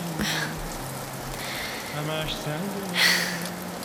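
Steady rain falls with a soft, continuous hiss, with a low hum and a few brief brighter spatters, including a sharper burst near the end.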